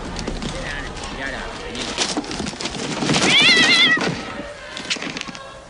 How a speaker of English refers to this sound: What? This box is meowing. Let me see it.